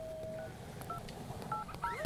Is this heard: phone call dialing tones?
yes